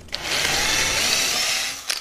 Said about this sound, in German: Schau, das ist jetzt ein Akkuschrauber. Dann spannen wir jetzt einen Bohrer ein.